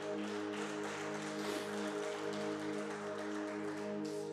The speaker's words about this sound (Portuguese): E se você crê nisso, aplauda Jesus bem alto.